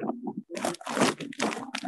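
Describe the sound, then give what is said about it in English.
Someone chews barbecue chicken with a crunch: a low muffled mouth sound, then several loud, crackly bites in an uneven rhythm, with no talking. “you eating you eating chicken scraps.”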